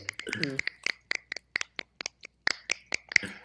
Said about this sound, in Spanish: ya, como no podemos aplaudir, vamos a chascar.